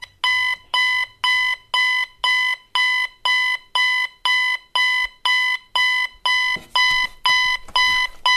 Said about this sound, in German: Okay, Zeit aufzustehen. Du hast aber schon einen sehr nervtötenden Wecker, oder? Ja, das stimmt. Den habe ich irgendwo aus dem Dachboden äh, rausgekramt.